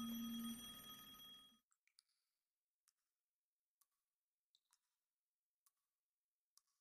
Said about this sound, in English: I think we have a phone call coming in. Yeah, that's a phone call.